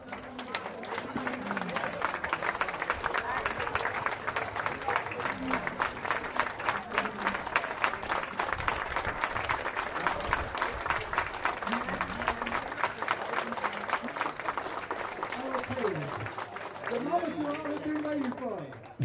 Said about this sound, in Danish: Der gik heldigvis ikke særlig lang tid, før … ankom. Publikum rejste sig og klappede ham op på scenen.